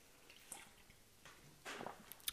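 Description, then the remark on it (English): Someone takes a drink of water: a few soft, wet sips and a swallow, separated by short pauses. It is quiet overall and nobody talks. “so i'm going to take a drink real quick”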